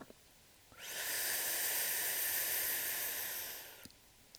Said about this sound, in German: Also einfach durch den Mund die Luft einsaugen.